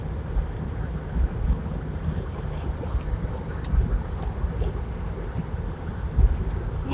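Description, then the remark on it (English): Car air conditioning, turned on with the car's top put up, blows in a steady, even whoosh over a deep low rumble, with a few soft thumps now and then and no voices. “I have to turn on some AC here because I put the top up so that you guys can actually hear me.”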